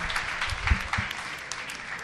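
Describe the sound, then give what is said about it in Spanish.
A debate audience applauds steadily, a dense patter of many hands clapping at once with a few sharper claps standing out, fairly even in loudness for the whole stretch. “gracias por aplaudir”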